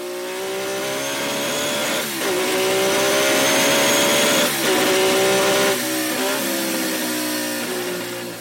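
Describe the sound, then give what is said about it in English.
The one-and-a-half-litre engine of a vintage Formula One car screams loudly at high revs, its pitch climbing and briefly dipping at gear changes before winding back up, with no voices over it. “It just wants you to to wind up the revs and make it scream.”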